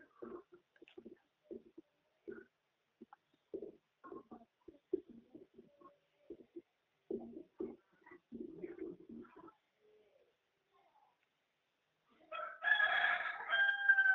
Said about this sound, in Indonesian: Kayaknya ayam kita saut-sautan deh dari tadi. Iya, kayaknya jodoh. Kak, ayamnya jodoh ya.